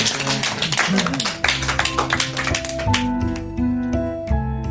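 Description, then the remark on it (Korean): A few teachers at a school staff meeting clap reluctantly after a cheer for the principal, the claps uneven, loose and scattered, thinning out toward the end, with a steady tonal hum or music running underneath. “옆에 서서 회의를 진행하던 교무 주임이 파이팅을 외쳤고 선생들 몇이 마지못해 박수를 쳤다.”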